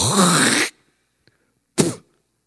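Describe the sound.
A man's voice imitates a long, rasping throat-hawking sound, then after a brief silence a short, sharp spitting burst, both fairly loud.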